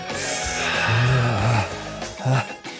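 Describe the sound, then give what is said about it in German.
Heavy, exaggerated breaths of someone hyperventilating, drawn in and pushed out in quick succession, with a couple of strained, voiced exhales and a short gasp near the end. “Ich glaube, ich hyperventiliere.”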